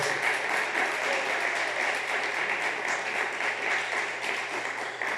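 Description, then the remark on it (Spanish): A crowd applauds to praise the Lord, a dense, continuous wash of many hands clapping at an even loudness throughout, with no voices standing out above it. “Aplauda al Señor entonces.”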